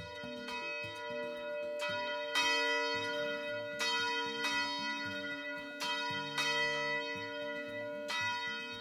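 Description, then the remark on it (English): Church bells peal from a tower in a steady, overlapping sequence of strikes, each ringing out with long, shimmering overtones that blend into a continuous wash of sound. “Usually, a bell tower is connected to the structure of the church.”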